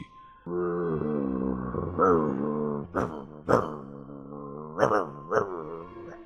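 A dog growls low and steadily, loud, with the rumble rising and flaring before several sharp, barking bursts break through in the second half.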